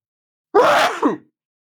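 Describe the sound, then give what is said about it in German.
A single loud sneeze on its own: a sudden harsh, hissing burst that ends in a brief voiced catch, lasting well under a second with silence before and after. “Gesundheit.”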